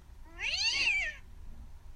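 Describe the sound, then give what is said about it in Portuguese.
A single drawn-out cat meow, rising then falling in pitch, clear, lasting about a second over a quiet low background hum with no talking. “Bichento o nosso gato nos seguia para todos os lados.”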